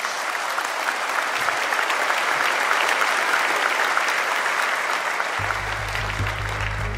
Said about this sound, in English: How about all these volunteers in our church? Let's just give them a round of applause because they matter so much.